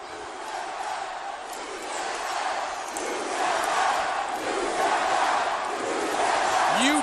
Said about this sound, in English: Tapped out. That's what this crowd's chanting here.